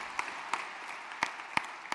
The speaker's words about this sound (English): Come on, somebody, give yourselves a big round of applause out there. Great, great decision.